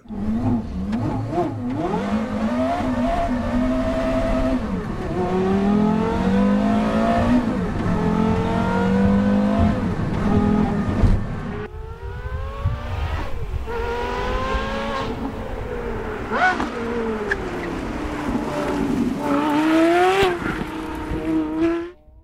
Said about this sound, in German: Und wie immer an dieser Stelle gibt's auch einen kurzen Soundcheck vom Carrera GT.